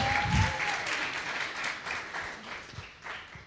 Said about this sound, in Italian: Possiamo... Possiamo prendere un momento, però aspettare, i vostri pastori si meritano di più ragazzi. Possiamo fare un applauso a ai vostri pastori.